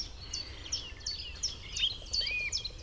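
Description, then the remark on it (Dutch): A song thrush sings from far off, a quick series of bright, repeated chirping phrases over a low outdoor rumble, with other faint calls mixed in and no one talking. “En daar van achter hoor je de zanglijster in die strofe, maar het is heel ver.”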